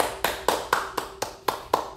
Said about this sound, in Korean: 와 진짜 제 박수 쳐드릴게요 이거